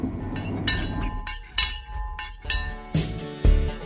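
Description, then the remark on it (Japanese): The Limited Express Soya rolls slowly into Wakkanai Station, which has only one platform, at 12:40 pm after 5 hours 10 minutes from Sapporo: a low rumble with heavy, evenly spaced wheel clunks about once a second and faint metallic ringing, no voices. “特急宗谷は帝国の午後0時40分ホームが一つしかない稚内駅に滑り込んだ札幌を出てから5時間10分だが、まだ乗り足らない。”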